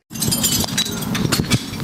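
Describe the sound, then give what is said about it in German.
Shards of broken glass preserving jars clinking and scraping as they are gathered up in front of a house in Kyiv, a steady run of small sharp clinks with no voices. “Alles voller Scherben, seufzt Galina Dmitrieva und sammelt die Reste ihrer Einmachgläser ein vor ihrem Haus in Kiew”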